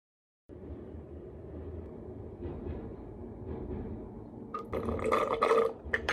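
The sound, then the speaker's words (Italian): A tram rumbles past outside during the quarantine with a steady low roar, building toward the end with bright metallic squeals and clatter from the wheels on the rails. “C'è la quarantena, cosa servono i tram?”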